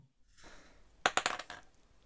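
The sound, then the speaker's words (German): A quick cluster of sharp, hard clicks and clatters, like small dice tumbling and bouncing on a table, after a soft rustle, then settling into quiet. “Wo ist mein Glückswürfel? Okay, dann, dann kann ich keinen Wurf mehr machen. Ein anderer Würfel versagt.”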